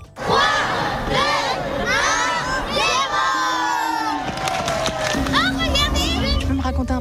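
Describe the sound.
An outdoor festival crowd at Place des Terreaux in Lyon buzzes loudly as excited children shout and cheer over one another at a Mexican tale show, high voices rising and overlapping continuously, with a steady low hum of activity underneath.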